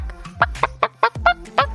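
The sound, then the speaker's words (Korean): A voice on a radio show imitates a chicken clucking as praise for a listener: about seven short, sharp clucks in a quick, uneven rhythm, loud, with no other talking. “이 느낌 그득 담아서 기분 좋은 닭소리로 특급 칭찬해드릴게요.”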